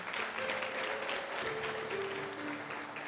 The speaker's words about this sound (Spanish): ¿Por qué no le da un fuerte aplauso al Señor y oramos?